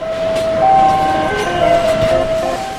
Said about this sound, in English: A modern car plant, by the way, sounds a lot like a casino. The automated gear plays little songs to let you know that it's running driverless robot carts glide up and down the aisles